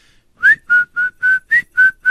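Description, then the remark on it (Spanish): A person whistles a short tune, the theme of the show El Chavo del 8, seven clear, steady notes in a quick, even rhythm with slight pitch changes between them, no talking. “No más, ¿Vos, la puedes silbar”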